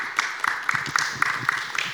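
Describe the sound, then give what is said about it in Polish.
A crowd applauding steadily, a dense wash of many hands clapping with sharper claps standing out at a fairly even rhythm, moderately loud and sustained, with no one speaking. “to zasłużone oklaski.”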